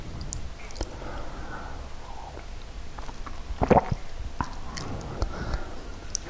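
A tomcat eating in the kitchen early in the morning: soft, irregular crunching and wet chewing clicks, fairly quiet, with a brief louder burst partway through and the quiet hum of the kitchen refrigerator underneath.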